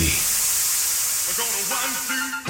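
A loud, steady hiss of rushing steam, the sound effect for the steam zone segment on The Ride with Reusse, fills the whole stretch, broad and airy, while a man's voice speaks faintly beneath it toward the end.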